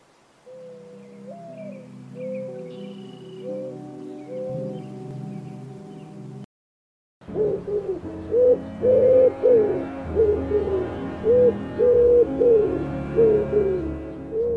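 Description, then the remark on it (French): A soft, sad tonal music passage, a brief silence, then a dove's low cooing repeats in a steady rhythm, fairly loud, with fainter bird calls in the background and no talking. “Musique triste et bruit d'oiseaux, il se rappelle alors des souvenirs d'enfance heureuse, en extérieur donc.”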